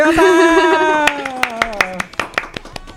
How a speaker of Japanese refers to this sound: 拍手もパラパラ なんでですか